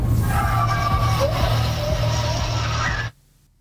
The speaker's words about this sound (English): for some reason, it sounds like one of the coyotes is being massacred, like it's crying out like it's being attacked. Is that thing going? Yeah. And then the coyote goes nuts.